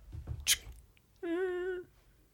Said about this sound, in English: as the door to his office slowly swings open. He didn't lock it.